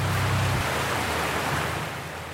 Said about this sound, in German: Durch den kleinen Ort rauscht der Fluss Anlauter, von dem das schöne Tal seinen Namen hat.